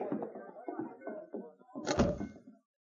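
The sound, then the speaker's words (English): A door in a cafe swings shut with a single solid, loud thud, following a stretch of low, indistinct voices or shuffling that fades just before the closing. “Joe closed the door behind them and at the same time pulled the gun out of his pocket.”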